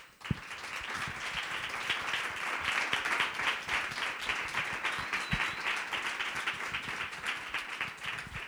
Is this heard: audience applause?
yes